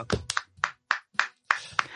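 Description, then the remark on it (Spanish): A handful of sharp, separate hand claps at a slow, uneven pace, moderately loud, with brief silences between them and no voices. “Hostia, tenemos aplausos, tío.”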